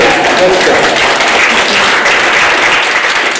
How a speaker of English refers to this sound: Let's go. See, they did clap for me. Just kidding, of course.